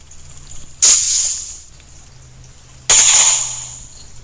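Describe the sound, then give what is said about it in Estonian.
Underwater recording of perch and zander: two sharp, hissy bursts about two seconds apart, each fading over half a second, over a faint low hum, with no voices. “see hääl kuulub ahvenale, kuid paneme siia kõrvale siis veel ka koha oma”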